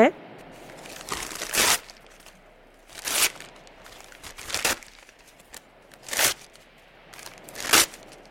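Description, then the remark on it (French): Pretty gift wrapping paper being torn open from a present containing a watch, in a series of about five sharp, loud ripping and crinkling bursts, spaced irregularly with quieter rustling in between. “Oh, quel joli papier cadeau. On ouvre Vas-y, toi d'abord, ouvre.”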